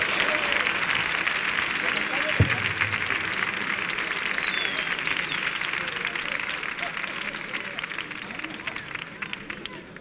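An audience claps steadily and loudly throughout as a band takes the stage, a dense wash of applause that barely varies in level, with a brief low thump early on.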